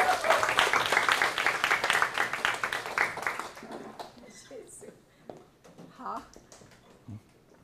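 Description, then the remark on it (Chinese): A crowd at a church worship gathering breaks into dense, loud applause for a speaker after her talk; it holds for a few seconds and then tapers off, giving way to scattered voices and a few lingering claps. “一个更加热烈的掌声，感谢你。”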